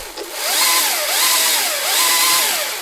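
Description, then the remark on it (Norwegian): A battery-powered electric chainsaw, one of seven being tested, whines steadily, its motor pitch rising and falling in a regular wavering pattern as it revs, loud and continuous with no voices. “Vi snakker om, eh, om test av eh, elmotorsag. Ja. Med batteri, faktisk.”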